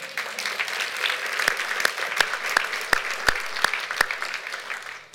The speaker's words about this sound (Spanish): A Él sea la gloria, un aplauso al Señor, amén.